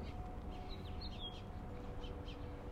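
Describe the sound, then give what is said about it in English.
Faint birds chirp in short scattered bursts over a steady low rumble of outdoor background noise, with no voices present. “Now the birds have joined into the party I don't know if you can hear them, but isn't it interesting as soon as we're talking about these qualities of sound through the perceptual field of sound that emerges?”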